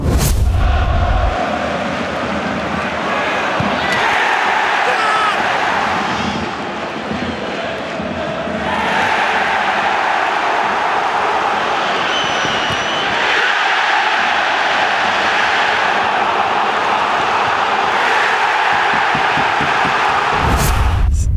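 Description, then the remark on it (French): A football stadium crowd at St James' in north-east England roars and cheers loudly for about twenty seconds, celebrating as if for goals, a dense, sustained wall of voices that dips briefly midway before surging back to full volume. “J'ai rarement vu une foule engagée comme ça en même temps.”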